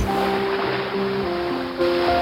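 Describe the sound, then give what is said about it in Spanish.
Heavy waves churn and crash against a ship in a storm, icy spray sweeping the deck, in a loud, continuous roar of rushing water, with a steady low moaning tone running underneath throughout as the ship rocks and groans. “Un rocío helado barría la cubierta mientras grandes olas se rompían contra el barco.”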